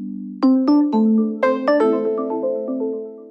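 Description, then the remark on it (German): A public transit information gong plays a quick melodic sequence of about eight bright chime notes, each ringing on and overlapping into a sustained tonal wash, clear with no voices. “So klingt der Infogong.”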